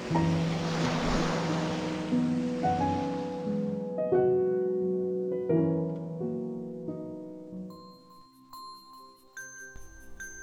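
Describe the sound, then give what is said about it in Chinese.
A soft, rushing wash of ocean waves, the sound of the sea heard in a conch shell, fills the first four seconds, blended with gentle melodic music that carries on alone afterward, ending in light twinkling chimes. No one speaks. “喏，海螺。”嘿嘿，你们听听啊，能听到大海的声音呢。”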